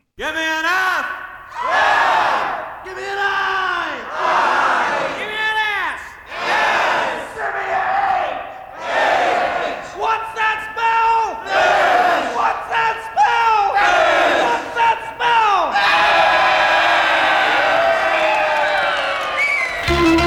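A large outdoor crowd at the Woodstock festival loudly shouts in unison, spelling out F-U-C-K letter by letter in a rhythmic chant, each burst separated by short pauses, swelling into a sustained roar near the end.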